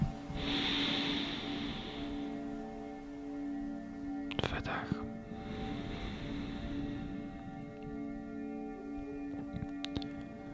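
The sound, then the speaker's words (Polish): Two slow, deep breaths drawn in through the nose, each a long airy rush, over a soft steady ambient drone; part of five deep breaths in and out, taken through the nose throughout. “Weźmy teraz pięć głębokich wdechów i wydechów, pamiętając o tym, że cały czas oddychamy nosem.”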